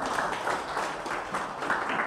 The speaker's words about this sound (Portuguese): Coloque-se de pé, aplaude o nome do Senhor Jesus.